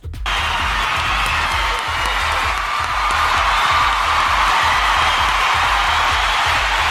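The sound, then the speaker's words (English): A loud, sustained burst of applause and cheering from a crowd for a prize winner, with whoops over steady clapping and a pulsing low beat underneath, holding at full volume for several seconds. “Round of applause for our winner tonight”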